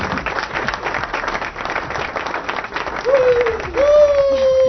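A crowd applauds with dense, steady clapping for a few seconds, then two sustained whooping cheers ring out over the clapping toward the end.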